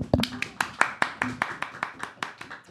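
Hands clapping in a quick, steady rhythm, around a dozen sharp, even claps at moderate loudness, with a brief low murmur of voice under the first few.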